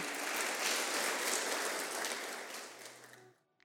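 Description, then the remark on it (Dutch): A crowd claps steadily in a dense, crackling wash of applause that holds for about three seconds, then thins out and fades away at the end. No voices are heard. The applause is for an idea that was presented. “Daar wil ik wel even een applaus.”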